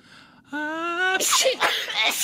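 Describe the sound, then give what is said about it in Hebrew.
A loud sneeze: a rising voiced wind-up, then a sharp breathy explosion trailing into a couple of quick noisy bursts, with no speech around it. “קולות של התעטשות.”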